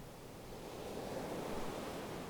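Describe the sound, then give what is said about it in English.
Ocean surf roars in a steady, continuous wash that swells slightly louder partway through, with no distinct individual breakers and no voices. “As the waves crash against your chest and your face and try to toss and turn you, imagine that they represent the anger or rage or guilt being pushed at you by this person.”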